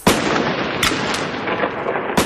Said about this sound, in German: immer zehn Meter weg, wenn ich dann so eine kleine Knallerbse irgendwo hinwerfe. Meine Katze oder mein Kater, die verkriechen sich dann immer unter unseren Stühlen, aber eigentlich finde ich es mega cool.